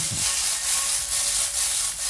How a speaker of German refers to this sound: Lassen wir kurz stehen den Reis und gehen zum Tofu. Ein bisschen schütteln, Pfanne schütteln.